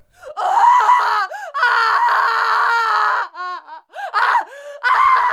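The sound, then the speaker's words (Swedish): A shrill, wailing stock scream effect, one used often on Radio Pleppo, rises and falls in several long, strained bursts with brief gasps between them, loud, with no talking over it. “Det, det, som slog mig var att det låter alltså ganska exakt som ett, ett så här skrik som vi använder väldigt flitigt i Radio Pleppo.”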